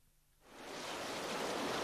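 After a brief quiet moment, a broad hissing wash of sea water swells up and holds steady as a wave rushes up onto a beach.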